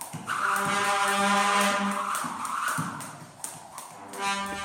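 A jump rope slaps the ground in a quick, fairly regular series of taps while someone skips, heard over a steady, droning tonal hum in the background.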